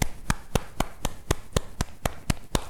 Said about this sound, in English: So I want you to copy with me and join the, on this game. So Simon says, clap hands.